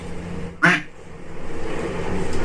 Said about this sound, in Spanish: Ese pato. Ese patazo.